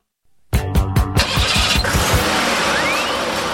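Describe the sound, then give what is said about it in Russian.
After a moment of silence, the engine of a VAZ-2101 'Kopeyka' (Zhiguli) car cranks with a rapid series of rhythmic starter pulses, then catches and settles into a loud, steady idle. “Ну и сегодня полувековой юбилей отмечает легендарная копейка, легендарный автомобиль ВАЗ-2101.”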